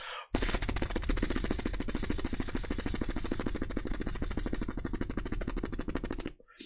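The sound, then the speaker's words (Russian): Someone imitates a small pit bike engine with the voice: a loud, rapid rattling buzz held steadily for about six seconds before it cuts off. “Питбайк, да.”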